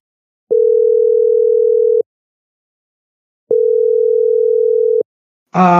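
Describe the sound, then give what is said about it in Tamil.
Two long, steady buzzing ringback tones of a phone call being placed to the manager of Gowri Finance, each lasting about a second and a half with equal gaps, before a voice briefly answers at the very end. “மேனேஜருக்கே phone தான் சரியாக வரும்”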